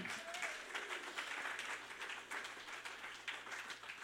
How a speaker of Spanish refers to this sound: Dale palmas a Cristo, aleluya.